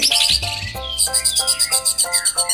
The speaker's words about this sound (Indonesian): Burung tras membuka konser dengan lagu yang sangat indah.